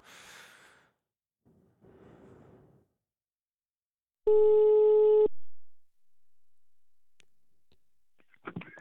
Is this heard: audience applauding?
no